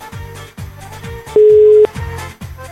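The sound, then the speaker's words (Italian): A telephone ringing tone sounds once as a loud, steady beep of about half a second, standing out over a faint, rhythmic low thumping in the background. “Squilla, squilla, squilla.”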